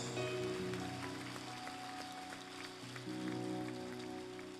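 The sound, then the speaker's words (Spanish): A church audience applauds steadily, a dense wash of many hands clapping at once, with sustained keyboard or organ tones humming underneath throughout. “Dale un fuerte aplauso.”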